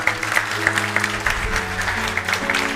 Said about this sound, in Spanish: Hoy está increíble, vamos a tener full house. Un aplauso, ¿no?